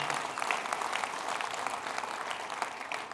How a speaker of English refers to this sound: Let's give that another round of applause, actually. Hallelujah.